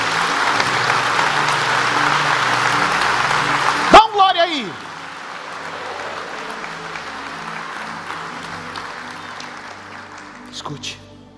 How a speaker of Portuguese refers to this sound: Alguém pode dar um aplauso bem forte ao Senhor Jesus?